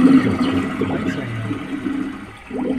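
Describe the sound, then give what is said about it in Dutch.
A toilet flush from a sewer simulator soundscape: a loud, rushing surge of water that gurgles and swirls steadily, dipping briefly near the end before the churning resumes. No one speaks. “Volgens mij worden we doorgespoeld”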